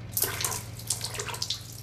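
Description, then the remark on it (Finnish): Olive oil sloshes and splashes gently as a mother fills a small basin with it and bathes a baby in it, soft irregular bursts over a steady low hum, moderately quiet, with no voices. “Äiti täyttää pikkuisen altaan oliiviöljyllä. Kylvettää vauvaa siinä joka päivä.”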